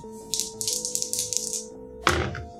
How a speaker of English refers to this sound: I'm a fan of how these dice roll, uh, but that's a 71.